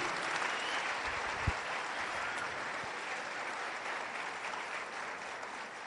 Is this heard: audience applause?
yes